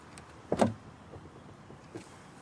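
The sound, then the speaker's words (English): A car door latch is pulled open with a hook by a person with no arms: a sharp mechanical clunk with a brief rattle, then quiet, and a faint second click a moment later. No one speaks. “I have this hook here, and that's all you need to open the door.”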